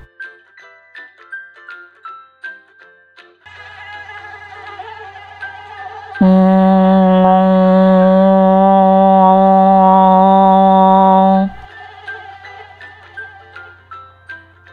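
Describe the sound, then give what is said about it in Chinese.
A mosquito buzz from Botai the mosquito in Lai Ma's picture book 'I Became a Fire-Breathing Dragon': a loud, steady, harmonically rich drone that holds for about five seconds, preceded by light rhythmic ticking and a low hum, with no talking. “这是一个熟悉又令人讨厌的声音。这是蚊子波泰，它最喜欢吸人血了，尤其生气过后，热腾腾的血。”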